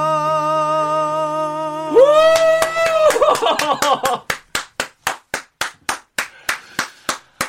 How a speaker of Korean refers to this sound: 야, 뭐 와우 박수 정말 뭉클하네요.